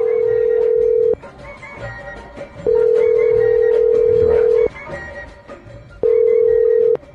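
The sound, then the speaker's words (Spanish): A phone line rings after dialing: a steady, low-pitched ringback tone sounds in three loud, even bursts separated by short pauses, with faint background noise between them. “Vamos a marcarle al compa. Ahí te va.”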